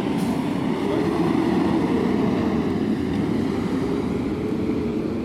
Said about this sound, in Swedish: Corona, nu kommer brandbilen med, Flushing. med rödljus på här. Fast utan siren. Full fart.